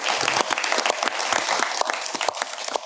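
An audience breaks into steady applause for two speakers after a lecture, many hands clapping at once in a dense, bright wash that holds at an even loudness for several seconds, with no talking over it.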